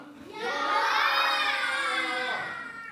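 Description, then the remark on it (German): A children's audience shouts "Ja" (yes) together loudly and sustained for a couple of seconds, a bright massed group yell that swells in and then fades out, answering yes to whether eating carrots lets you see like an eagle. “So sehen wie ein Adler, die rufen jetzt laut Ja.”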